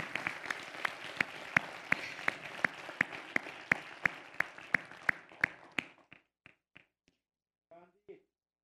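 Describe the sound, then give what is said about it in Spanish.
Audience applause with sharp, evenly spaced claps standing out over a steady wash of clapping, lasting about six seconds before thinning to a few scattered claps and a brief voice. “Eso, merece un aplauso.”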